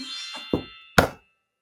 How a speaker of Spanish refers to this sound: ¿Quién está tocando mi puerta?